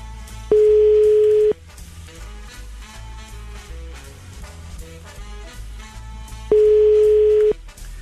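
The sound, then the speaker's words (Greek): Two steady one-second ringback tones, about six seconds apart, sound over soft background music, the pattern of a phone line ringing with nobody answering. “δεν βλέπω να το σηκώνει”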